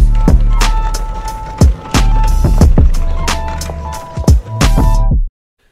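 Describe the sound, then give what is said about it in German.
A shopping cart rolls with a continuous rattling, clattering rumble and repeated sharp metallic knocks, loud, stopping abruptly near the end. “Jannis Einkaufswagen.”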